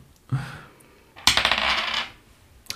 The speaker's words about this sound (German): Ich meine, Einser gewürfelt. Du kommst nicht dran. aber es ist zu wenig. Würfel nochmal.